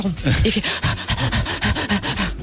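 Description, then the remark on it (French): A person imitates the panting of a frightened Yorkshire terrier in a car: quick, breathy huffs repeating nonstop in an anxious rhythm, fairly loud, with no other sounds. “Voilà, ça c'est typique le, York qui a peur en voiture.”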